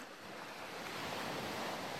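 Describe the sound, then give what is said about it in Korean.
Large waves wash and roar continuously against a breakwater, throwing up spray and at times washing seawater over it; a dense hiss of surf that swells slightly louder toward the end, with no voices present. “간혹 큰 파도가 방파제를 때리면 물보라를 일으키며 바닷물이 넘어오기도 했어요.”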